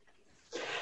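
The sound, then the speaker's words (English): A sudden, breathy sneeze bursts out after a brief quiet lead-in, a single sharp expulsion of air that stays loud to the end. “God, bless you.”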